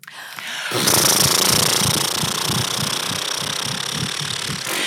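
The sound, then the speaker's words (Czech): A loud lip trill: relaxed lips buzz and flutter as voice is let out through them, in a rapid, steady motorlike rattle for about four seconds, with no talking over it. “Uvolní se rty a do toho se vypouští zvuk a dělá se...”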